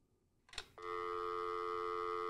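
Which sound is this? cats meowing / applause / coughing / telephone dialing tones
telephone dialing tones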